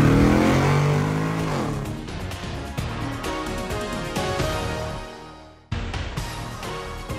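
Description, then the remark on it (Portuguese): A car engine roars loud as it shifts into first gear and accelerates, the revs climbing steadily, then briefly dropping off before surging again as if shifting gear. “engata a primeira e acelera!”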